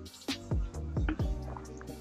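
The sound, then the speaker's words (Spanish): A few wet gulps come in a quick, uneven rhythm, like someone swallowing water from a bottle, with soft liquid sounds in between and no talking. “Tomen agua, amigos. Hidratación es importante. Agüita time.”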